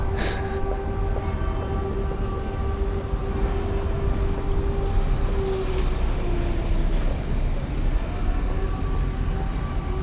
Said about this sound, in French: Le bus,